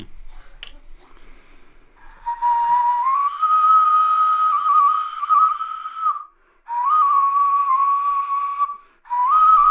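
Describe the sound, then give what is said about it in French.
A flute played without its mouthpiece gives a breathy, whistle-like tone, held in three sustained phrases of a gently wavering mid-high pitch, with short pauses between them. No one speaks. “je peux enlever l'embouchure et le jouer à la façon comme la, que la première flûte et ça va, on va retrouver le, on va retrouver le, son de la flûte.”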